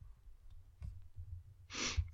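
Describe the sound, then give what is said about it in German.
A single breathy exhale or sigh swells up after a quiet stretch of low background rumble. Nobody speaks. “und ich höre dich atmen.”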